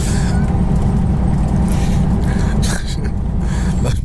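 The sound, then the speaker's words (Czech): A loud, steady low rumble of engine and road noise fills the inside of a moving bus travelling from Brno to Prague, continuous throughout, with a couple of brief hissing or rattling bursts near the end. “poslední vstup bude asi lehce veselý, protože vstup, vstup, se vracíme z Brna do Prahy v autobuse.”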